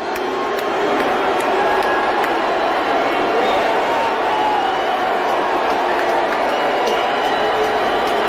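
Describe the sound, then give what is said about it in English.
A large crowd at a Dave Chappelle comedy show roars continuously and loudly for several seconds as Elon Musk is introduced, a dense wash of voices that sounds like sustained booing mixed with some cheering, with no clear pauses. “You can hear him booing. It's pretty loud.”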